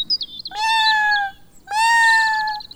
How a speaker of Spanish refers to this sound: Él es mi gato y se llama Sakuchan.